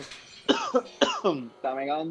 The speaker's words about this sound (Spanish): Papi, pero tapate la cabrona boca. ¿Cómo estás tosiendo así a la, a la interperie?